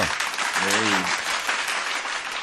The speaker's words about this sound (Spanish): muy bien, fuerte aplauso.